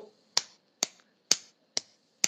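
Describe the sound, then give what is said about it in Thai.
Five crisp finger snaps in a steady, evenly spaced rhythm, each a sharp bright click with a quick fade, with quiet gaps between and no voices. “เหมือนที่คุณออฟพูดเมื่อกี้ดีดนิ้ว”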